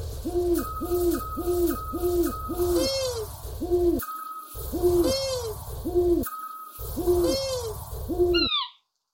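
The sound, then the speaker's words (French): Calls of scops, long-eared and eagle owls, three widespread European owl species, repeat in a steady, looping rhythm: deep, swelling hoots alongside shorter, higher notes, loud, with abrupt cuts between passages and no talking. “Écoutez plutôt le petit duc, le moyen duc et le grand-duc.”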